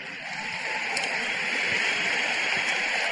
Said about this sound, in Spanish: démele un fuerte aplauso a mi esposita.